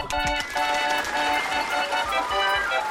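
Loud, dense applause, many hands clapping in a continuous crackling wash for about three seconds, with a sustained tonal drone running underneath.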